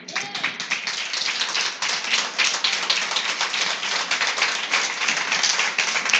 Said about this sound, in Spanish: Denle un aplauso a Yahweh.